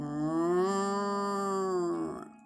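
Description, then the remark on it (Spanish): A single long, loud moo from a cow named Margarita as she is stroked, a steady droning call held for about two seconds before tapering off, with nothing else around it. “Acarició a la vaca, que le lanzó un enorme”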